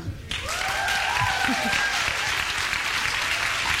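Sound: audience clapping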